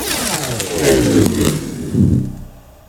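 Tesa adhesive tape being pulled off a roll: a steady, loud rasping screech with a buzzy, shifting pitch that lasts about two and a half seconds, swells briefly near the end, then drops away.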